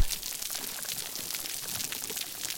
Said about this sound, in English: You've probably noticed that there's a staticky sound in the background of a lot of these recordings, these crackles come from snapping shrimp.